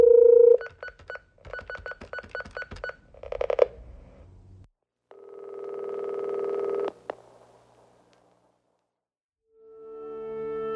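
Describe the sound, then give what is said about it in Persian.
A radio programme phones its expert guest: a rapid series of short telephone keypad tones is dialed, followed by a steady ringing tone and then another tone as the line connects, all clear with no talking. “سرکار خانم ستاری، کارشناس محترم برنامه رو روی خط داریم.”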